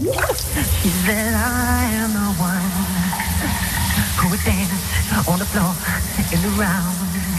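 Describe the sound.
A shower runs in a bathroom with a steady hiss of spraying water while someone sings a song along, their melodic voice clear over the constant rush.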